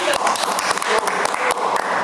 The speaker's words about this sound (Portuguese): Maravilha, arrasou. Ah, palmas.